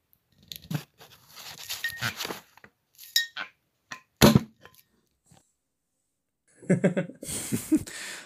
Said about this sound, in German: Und äh, deswegen lassen wir jetzt mal ganz dezent hier auch kurz die Korken knallen.